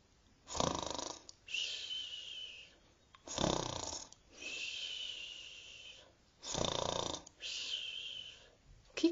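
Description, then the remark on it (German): A voice imitates snoring: three slow, even cycles, each a rasping, throaty inhale followed by a long breathy exhale, with no talking. “Dort schlafen sie in süßer Ruhe. Psst, seid mal leise und hört gut zu.”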